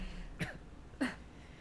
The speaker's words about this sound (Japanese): なんかのどかゆいなんでマスクしてるのにとか人って咳する時口の前にグーしちゃうんですか なんでなんやろう失礼いたしました